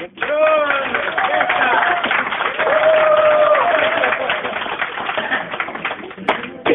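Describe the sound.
Steady applause from an audience fills the whole stretch, dense and loud, with high voices or whistles cutting through the clapping before it thins out near the end.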